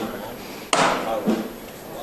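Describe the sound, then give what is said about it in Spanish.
The capataz's metal hammer on the palio float of the Virgen del Mayor Dolor en su Soledad strikes the wood with a sharp, resonant knock, followed by a softer second tap, concluding the float's departure, against a low murmur of a crowd outdoors. “Va a llamar al martillo”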